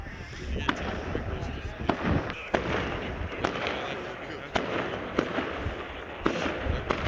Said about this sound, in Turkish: Bursa'da gökyüzü havai fişeklerle aydınlandı. İnsanlar 2021'e pencere önünde gökyüzünü izleyerek merhaba dedi.